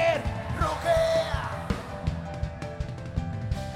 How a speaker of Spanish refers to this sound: Alguien puede dar un grito de que